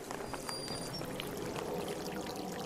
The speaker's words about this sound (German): Ach, das ist ja hübsch hier. Ja, so schön mit dem Wasser, die Gletscher und ähm, sehr ruhig. Ja, das muss ich noch kurz aufnehmen hier.